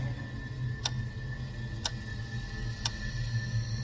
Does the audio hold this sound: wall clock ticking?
yes